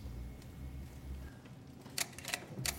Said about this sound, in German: Lazaridis klickt schnell weiter zur nächsten Folie.